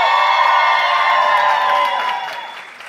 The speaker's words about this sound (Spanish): Con un increíble, fuerte, exótico aplauso, bulla, reciban a su host de la noche